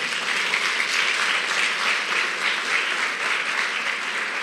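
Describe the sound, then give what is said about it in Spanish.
Steady, dense applause from a crowd for the King of Glory (God), many hands clapping together in a continuous, even wash of sound that holds at a fairly loud level throughout without pausing. “No, den un aplauso al Rey de la Gloria.”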